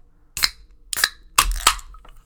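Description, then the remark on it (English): Several sharp metallic clicks and a fizzing hiss as High Noon Sun Sips grapefruit drink can tabs are cracked open, four crisp pops in quick succession with a brief spray of carbonation after each. “So with that, let's pop our tops.”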